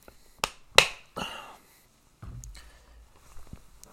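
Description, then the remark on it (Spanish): Someone takes a sip of water while testing a new microphone: two sharp clicks, a short wet rushing burst, then soft low handling noise and a faint swallow, with no talking. “Doy un trago de agua.”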